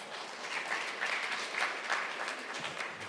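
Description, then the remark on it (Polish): An audience claps steadily for a few seconds, a soft, dense patter of many hands with no voices over it. “Dziękuję za cztery klaski, bo naprawdę to było mocne.”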